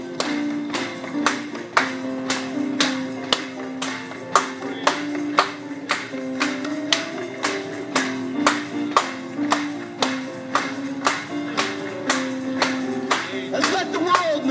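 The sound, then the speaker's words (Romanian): An audience claps in a steady, even rhythm, about two sharp claps per second, keeping time over sustained music for the whole stretch. “Haideți să o aplaudăm lui încă o dată.”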